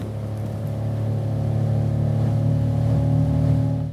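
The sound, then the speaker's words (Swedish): A motorboat engine drones steadily while cruising around on the water in autumn, a low continuous hum with a slight rise in intensity, with no voices present. “Eh, vi tänker inte upp på land än utan jag vill eh, åka runt här och kika lite vad det är för människor som har kvar sina båtar i sjön och hur de har haft det den här sommaren.”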